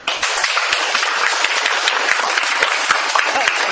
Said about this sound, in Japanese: 結構人いますどのぐらいいるかちょっと、えお知らせしたいので拍手をしてください。